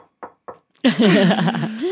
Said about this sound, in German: Ich klopfe mal auf Holz.